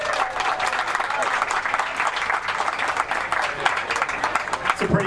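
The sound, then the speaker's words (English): Steady applause from a sizable audience welcoming Milwaukee Mayor Cavalier Johnson at an event of The Recombobulation Area, a Milwaukee opinion publication: dense overlapping claps filling the whole stretch at a fairly loud, even level, with a faint murmur of voices mixed in. “Everybody give him a hand.”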